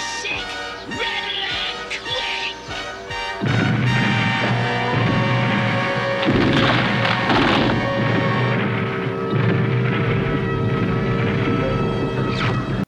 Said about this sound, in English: Now you will witness the power of my fusion cannon.